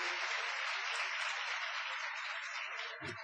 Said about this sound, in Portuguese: Quem aqui nos visita pela primeira vez nessa noite, faz assim com a sua mão. Mais uma salva de palmas pela vida dessas pessoas.